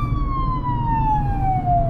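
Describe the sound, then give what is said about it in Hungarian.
A loud ambulance siren wails, its tone sliding slowly downward, over a steady low rumble of engine and road noise from a car on the road, as the driver has to pull over for the ambulance; no talking. “És csak közben jön a mentő, le kéne húzódnom, sikerült.”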